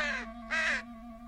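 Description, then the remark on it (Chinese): A crow gives two harsh, raspy caws in quick succession, the second slightly longer, with a low steady hum underneath and no voices. “乌鸦气极了，骂道：“坏狐狸，你这个该死的骗子！”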